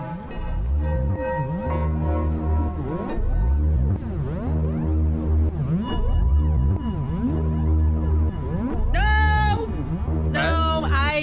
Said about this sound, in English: Biosonic MIDI technology translating in utero movements into sound.